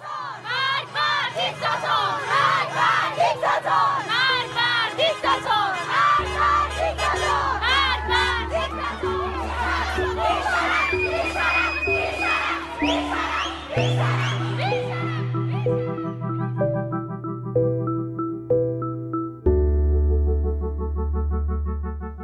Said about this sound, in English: Her death ignited a movement as Iranians took to the streets across the country to demand change. Women cutting off their hair in public and lighting their hijabs on fire. Chanting, Women, life, and freedom, and death to the dictator.